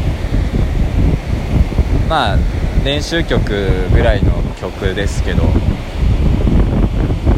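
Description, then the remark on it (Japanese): Loud, steady ocean surf roars with a constant rushing wash of waves on the shore, while a man talks over it. “おっと波が来ちゃう”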